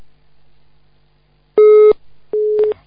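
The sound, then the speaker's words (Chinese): A telephone busy tone sounds after the line drops: two loud, steady mid-pitched beeps with a short gap between them, following a moment of near silence with a low hum. “电话线跳掉了，那要十几秒钟了。”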